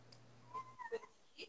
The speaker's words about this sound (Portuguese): é só um gatinho. Ele sempre aparece na live.